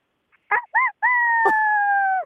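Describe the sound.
A person imitates a chicken with a rooster-like crow, trying it again on request: two short voiced bursts followed by one long, sustained wavering note, fairly loud, with no other talking.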